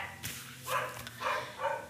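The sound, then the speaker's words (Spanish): The neighbor's dog barks three times in short, evenly spaced bursts, sounding somewhat muffled, with no talking over it. “Así que si escuchan al perro, es el perro del vecino o la perro del vecino, gracias por ladrar.”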